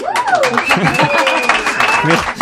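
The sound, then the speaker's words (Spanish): Dani Pedrosa's fan club applauds live in the Catalunya Radio studio, a steady, dense patter of clapping throughout, mixed with voices and a high, sliding whistle-like tone, all at a fairly loud level. “le están aplaudiendo, supongo que lo escucha, ¿eh?”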